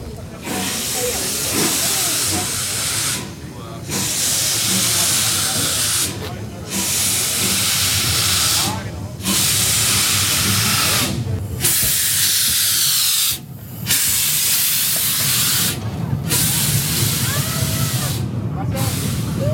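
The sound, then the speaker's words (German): A steam locomotive hisses loudly and steadily while shunting, broad rushing steam filling the scene in long bursts broken by brief gaps roughly every two to three seconds, with faint mechanical clanks underneath. “wie da rangiert wird und so, und über alles gedampft”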